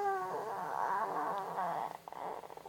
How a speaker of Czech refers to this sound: No, tohle je přesně to kňučení.